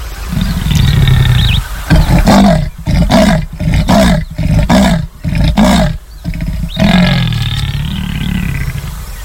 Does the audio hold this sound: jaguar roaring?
yes